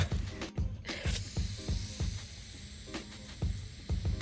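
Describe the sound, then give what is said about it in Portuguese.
Short hissing puffs of an empty asthma inhaler spray, with a steady run of soft rhythmic clicks and low thumps underneath; nobody speaks. “Já chega, asmática. Já deu. Já não tem nada aí dentro.”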